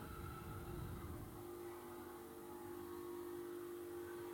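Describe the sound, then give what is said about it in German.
A coffee machine rattles and hums steadily against a wall, a continuous loud mechanical drone with a buzzing vibration and low rumble that is heavier at the start, with no talking. “Kommt deine Kaffeemaschine noch immer an, so an der Wand oder so?”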